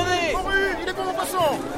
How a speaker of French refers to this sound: Le soleil tape fort sur le grand marché d'Alcalas. À droite, à gauche, on se presse devant les étals. On tâte les fruits, les poissons, les légumes.